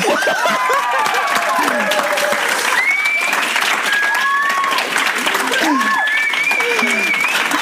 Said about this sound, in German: Weil ich überleiten wollte in, in unsere, in unsere Applaus-App.